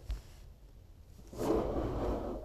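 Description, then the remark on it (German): A soft papery scrape and rustle starts after a quiet moment and drags on for about a second as a handwritten note is pushed under a door by someone outside it. No one speaks. “er, er hat mir einen Zettel geschrieben, unter die Tür durchgedrückt.”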